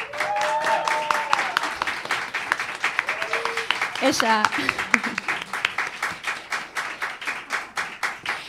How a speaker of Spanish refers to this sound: así que nada, público entregado, aplausos